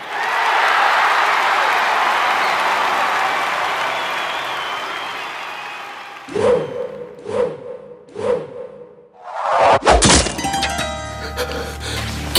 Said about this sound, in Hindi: लगा जैसे तीर हमारी ओर आए अर्जुन ने अपने बाणों से आप तात भीष्म और गुरु द्रोण के चरणों में प्रणाम किया है